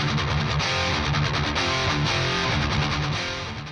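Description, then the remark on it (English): Loud, dense heavy metal music with thick distorted guitar tones and a steady driving rhythm, playing continuously, with no voices. “And this ranged everything from trying to play heavy metal music at them or banging on the rails.”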